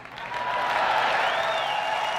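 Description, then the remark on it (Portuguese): A large audience bursts into sustained, loud applause and cheering as Steve Jobs unveils the Apple iPhone on stage, people punching the air; a dense wash of clapping with whoops and a high whistle rising above the noise. “A plateia vai à loucura. As pessoas dão socos no ar.”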